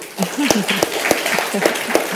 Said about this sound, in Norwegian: Vi gir dem en skikkelig applaus.